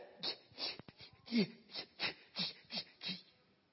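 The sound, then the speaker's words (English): A voice imitates the breathless panting of someone overwhelmed on seeing Jesus: about nine quick, breathy gasps in a steady rhythm, moderately loud, with no words spoken. “When I saw him, I was so overwhelmed that I was, I was panting.”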